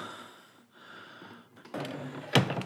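A huge, heavy steel trap door at the top of a tower, unlocked with a key, creaks open with a grinding, groaning scrape, then a loud clank lands near the end; fairly loud over a faint hiss, with no talking.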